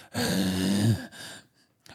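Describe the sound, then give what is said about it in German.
Someone imitates strange, heavy breathing: one long, voiced, groaning breath lasting about a second, trailing off into a softer airy exhale, followed by a faint brief noise. “der macht mal so, so, so, auch so ein komisches Atmen, so.”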